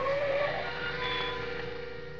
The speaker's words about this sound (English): I drove down Brighton Avenue looking for the house Dolores had described to me. All at once, I slammed on my brakes.